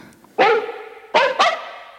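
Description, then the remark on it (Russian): A dog barks three times, loud: one bark, a short pause, then two quick barks in succession, as part of a radio program's intro jingle. No one speaks. “несколько минут после небольшой паузы вы услышите заставку на длинном поводке”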